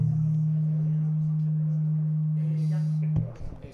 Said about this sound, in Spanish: Venga, vamos a, eh, ver si quito el acople este. Sí, hay un cierto acople. A mí no me molesta demasiado, pero.